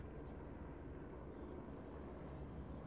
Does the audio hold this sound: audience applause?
no